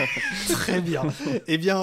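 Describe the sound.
A person imitates the cry of an ocelot, a wild cat, with a drawn-out, gliding yowl, fairly loud, then laughs and speaks briefly.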